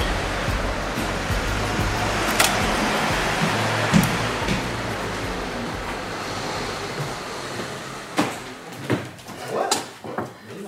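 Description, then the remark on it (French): A door opens and closes at a project manager's place in Pigalle, a few sharp clicks and thumps cutting through a steady rushing background noise, clustered mostly toward the end. “La porte est ouverte.”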